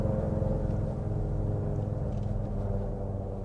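A Ford F-150 Lightning electric pickup truck accelerates with a low, steady whirring rumble, fairly loud, holding an even tone for a few seconds with no voices.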